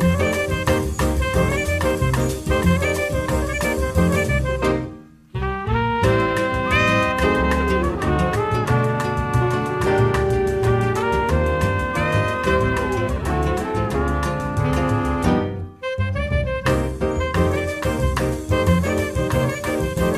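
A lively bossa nova–samba jazz instrumental plays loud and full, with rich layered harmonies and a steady groove, briefly dropping out twice before resuming. No voices are heard.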